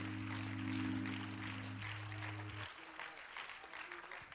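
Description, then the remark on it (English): An audience at a morning church service claps steadily in a dense, continuous wash of applause, while sustained organ or keyboard tones hold underneath and then cut off partway through, leaving the clapping to continue. “Clap your hands again to him this morning if you would.”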